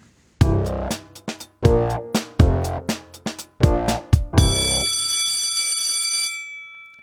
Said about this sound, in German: Also ich liebe ja diese Klingel.